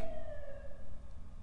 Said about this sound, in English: Uh, oh, I don't know if you heard that siren, but uh,